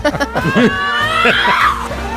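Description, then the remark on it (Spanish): Iberian lynxes let out loud, harsh screaming yowls, several overlapping wavering cries that rise and fall, filling about two seconds without a pause. “En el Telegram de Sumar y Podemos suena la tensión como aquellos linces, ¿os acordáis que gritaban?”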